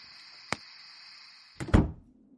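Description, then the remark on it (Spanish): A door is pushed shut with a solid thud and a brief rattle, after an earlier small click, over a steady high hiss. “Cierra la puerta, por favor.”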